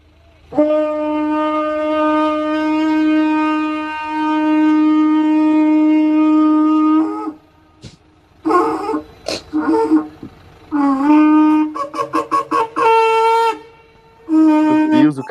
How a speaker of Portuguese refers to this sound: Afinal de contas, o cara tá usando um berrante, né, para chamar, conclamar a galera.